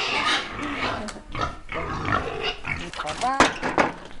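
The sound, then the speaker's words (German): Hungry pigs on a farm squeal and grunt loudly in overlapping bursts, wanting to be fed, with several shrill, rising squeals near the end over a busy, noisy pen and faint voices. “Warum schreien oder pieken die schon?”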